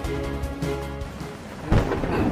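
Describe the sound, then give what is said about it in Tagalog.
A thunderstorm rumbles steadily with rain hissing underneath, then a louder burst of thunder breaks in near the end. No voices are heard. “Lumalakas na ang bagyo!”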